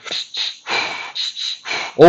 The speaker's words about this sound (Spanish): Acá puedes ir cambiando tus ritmos de respiración y cambiar, ir viendo,